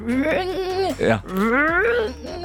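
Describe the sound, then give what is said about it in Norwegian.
A man's voice loudly imitates a car engine failing to start, making two strained, wavering, bleating cranks that rise and fall in pitch. “Men vi får ikke helt starta den.”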